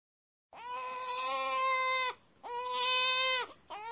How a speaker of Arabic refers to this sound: رضيع يبكي بكاء شديدا والمحاكاة اللفظية لهذا البكاء في اليابانية هي أونيا أونيا